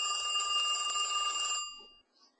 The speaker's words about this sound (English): 就在这个时候，电话响了。